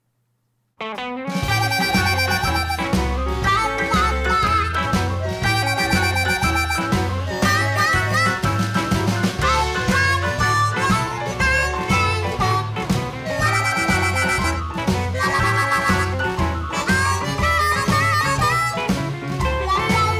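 A band's music track kicks in after a brief silence and plays loudly and steadily, with a pulsing bass line, a driving beat and bright, slightly distorted guitar tones. No one speaks.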